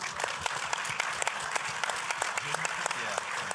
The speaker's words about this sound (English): So round of applause to Equip.